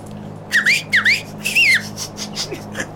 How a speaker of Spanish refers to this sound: Impresionante. son pájaros, ¿no? Eh, pájaros.